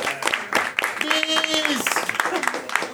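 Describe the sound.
An audience applauds a guest comic artist who is being introduced, with dense, steady clapping that fills the whole moment. Some voices are mixed in, and a short sustained whistle or cheer rises above the claps partway through.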